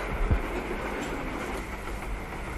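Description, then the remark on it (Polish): A rail carriage of a train to Łódź rolls along with a steady rumble and hiss, a couple of low knocks from the wheels near the start. Nobody speaks. “To jest pociąg do Łodzi.”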